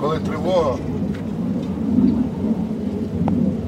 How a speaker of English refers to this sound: Just as we finish talking, a Ukrainian jet flies above.